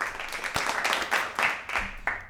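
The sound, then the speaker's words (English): A short burst of applause sound effect, played as a clap for a listener who sent something in: steady, crackly clapping lasting a couple of seconds, fairly loud, with sharper claps popping through the hiss of the crowd. “can you can you just give a clap to whoever the fuck sent this in?”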